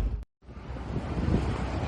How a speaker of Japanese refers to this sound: いやー潮風が気持ちいいです。